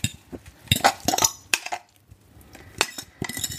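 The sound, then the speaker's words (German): Egg mixture for kuku sabzi, a green herb omelette, goes into a pan heated with olive oil amid clinks and scrapes of utensil against metal, with a soft hiss building toward the end; no one speaks. “Dann warte ich erstmal, dass die Pfanne ein bisschen heiß wird. So, und dann gebe ich jetzt mal mein Omelett hier rein.”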